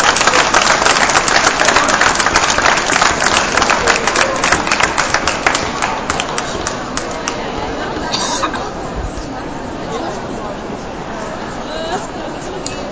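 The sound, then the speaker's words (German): An audience claps steadily, a dense burst of applause that gradually thins out and gives way to a murmur of crowd chatter in the second half. The applause is for the winner of a trip to Barcelona as he comes forward. “Ein herzlichen Applaus.”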